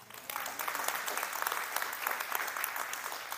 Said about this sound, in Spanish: Santo Dios, qué bendición. Denle un fuerte aplauso, hermanos.